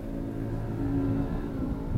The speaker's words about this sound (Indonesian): gila nih Jakarta macet banget nih